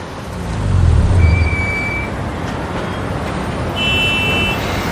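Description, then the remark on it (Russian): Steady roar of a traffic jam: idling cars and a bus with air brakes, its deep engine rumbling, with thin, high tones like horns sounding in the middle and again near the end. “Блин, еще и пробка теперь стоять будем.”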